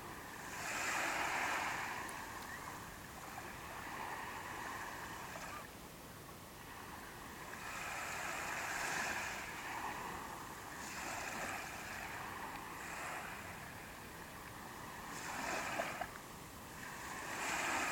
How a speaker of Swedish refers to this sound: Känn doft av hav och den salta doften blandat med tång. Stå stilla och hör vågornas brus. Stanna ytterligare en liten stund i känslan och reflektera över vad du känner när du ser och hör havet.